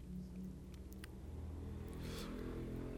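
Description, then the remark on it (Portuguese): A motorcycle engine with its exhaust removed rumbles and revs in a low, throaty drone as it passes down the middle of the street at 4:50 in the morning, holding steady for the whole stretch, with no voices over it. “São 4h50 da manhã, o cara tira escapamento da moto, que já é um babaquice e ainda passa no meio da rua.”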